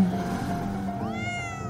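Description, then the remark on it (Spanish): A single drawn-out cat meow rising in pitch partway through, heard alone over a low, steady background hum. “huélanle, pero no hagan ruido porque se espanta el gato.”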